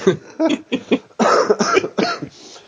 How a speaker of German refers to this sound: Sorry übrigens für die Husterei. Ich bin immer noch äh, erkältet. Seht es mir nach, wenn ich euch hier ins Mikrofon huste.